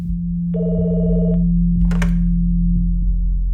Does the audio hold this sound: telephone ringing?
yes